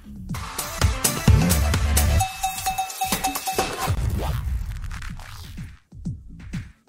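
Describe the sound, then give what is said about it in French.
A short, busy musical jingle with percussive hits, a sustained tone in the middle, and a low pulsing bass, playing loudly for several seconds before cutting off. “Alors, jingle, le temps que je prenne la vidéo.”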